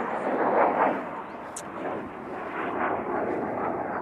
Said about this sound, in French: Alors, j'attends qu'il y a un avion de chasse là qui passe. Donc je vais attendre avant de continuer l'enregistrement.